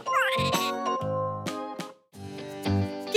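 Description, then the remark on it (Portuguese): A cat meows in a drawn-out, wavering cry, followed by several shorter bright bursts over a steady tonal backing, fairly loud, with a brief gap of silence near the end. “Até a próxima! Miau!”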